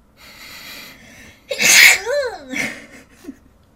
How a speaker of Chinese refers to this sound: 我想打喷嚏，我等一下。